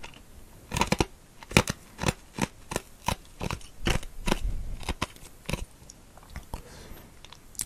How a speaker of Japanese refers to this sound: 氷の咀嚼音。